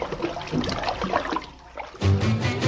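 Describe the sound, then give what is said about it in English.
Water pours into a bathtub, a splashy, bubbling rush that suddenly grows louder and deeper partway through, as if the tap opens wider. Steady, with no voices. “Picture a bathtub.”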